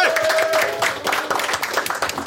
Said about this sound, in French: Je vous demande d'abord de faire un tonnerre d'applaudissements à notre premier invité